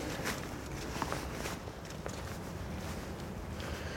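Steady footsteps crunch along outdoors at a walking pace as people walk over toward a bird that has landed on tree branches, with a constant wash of wind or ambient noise underneath and no voices.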